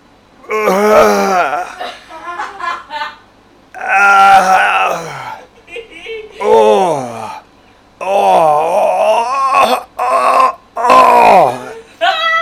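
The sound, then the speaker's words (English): A man imitates the straining and groaning of a man defecating in a toilet stall: a series of loud, drawn-out vocal grunts and moans with sliding pitch, separated by short pauses. “So the sounds of his shitting, like the noises he was making physically, was just like”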